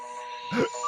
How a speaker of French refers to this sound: Pardon, c'est mon téléphone. non, non, c'est le docteur, c'est le Tardis qui est arrivé chez toi.